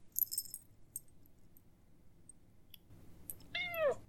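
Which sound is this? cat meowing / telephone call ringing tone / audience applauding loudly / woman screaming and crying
cat meowing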